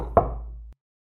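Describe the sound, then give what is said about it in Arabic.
A single sharp knock on a door, followed by a low resonant hum that fades out within about half a second, with no voices present. “طبعا ربما يكون صوت الباب هذا عندنا يا شباب مو عندكم اعزائي المستمعين قرع الباب هذا هو صوت لسؤال خاص مثل ما ذكرنا في بدايه البودكاست عندنا اسئله شخصيه”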